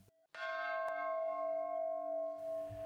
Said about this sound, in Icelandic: Hér undir ómar fríðarbjallan sem sett var upp 2008 þegar tíu ár voru frá fríðarsamkominnlegin og Norður Írlandi sem kent er við förstu daginn langa.